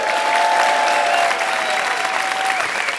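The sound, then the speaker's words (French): A large audience at the Apollo claps and cheers steadily and loudly throughout, with a long, high whistle cutting through the applause before fading near the end. “Du bruit pour Wallace, s'il vous plaît.”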